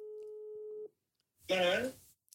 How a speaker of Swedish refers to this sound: Du, jag ringer honom på en gång här nu. Vänta, ska vi se.